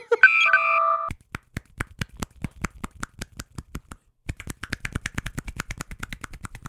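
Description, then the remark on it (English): A few short electronic beeps, then a steady run of sharp, crisp claps made by two hands each clapping individually rather than together; after a brief pause, the claps resume in a quicker, denser rhythm. No one speaks. “That is the sound of two hands clapping, but individually.”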